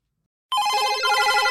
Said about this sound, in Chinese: 哎，场内的贵宾都是大人物，工作非常的繁忙，场内的电话声、讯息声响个不停，大家都忙着处理各自的事情。